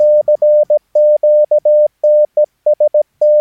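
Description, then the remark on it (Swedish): Slow Morse code in a single clear, steady tone, keying out the word "test" as a string of short dots and longer dashes with distinct pauses between them. Loud, with no voices. “nu är det här väldigt långsamt tempo. Du kommer aldrig höra test i det tempot, men du kommer känna igen rytmen av test.”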